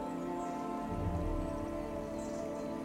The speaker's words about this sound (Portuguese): escuta a natureza, escuta que próximo a vocês há um pequeno córrego